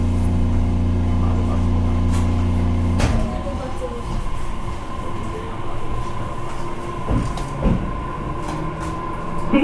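A JR BEC819 series electric train running from Wakamatsu to Orio hums steadily with a strong low tonal drone, then the pitch shifts and it rolls on with rumbling wheels and occasional clunks, heard from inside the car.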